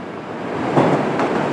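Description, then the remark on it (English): A subway train rumbles along with a steady roar of wheels and rails, broken by two brief clanks partway through. No voices are heard. “However, this is nothing compared to the train ride itself.”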